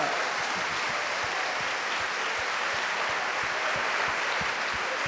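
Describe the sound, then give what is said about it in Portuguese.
Sustained applause from a crowd, given for the glory of the Lord, a dense steady wash of many hands clapping at an even loudness for several seconds, with no one speaking over it. “E dê-lhe um lindo aplauso para a glória do Senhor.”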